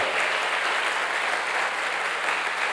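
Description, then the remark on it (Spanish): A church audience applauds the Lord after a scripture reading, a dense, continuous wash of many hands clapping at an even loudness for the whole stretch, with no voices standing out. “Quiero que le dé un fuerte aplauso al Señor por esta palabra.”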